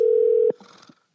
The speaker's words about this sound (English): Oh, he's there. It's just he doesn't want to pick up because he doesn't know the phone number. Probably not.